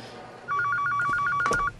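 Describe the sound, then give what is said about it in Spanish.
A telephone rings in a house with a rapid warbling trill, steady and fairly loud, lasting just over a second against a quiet background with no talking. “Matías recibe una llamada en su casa.”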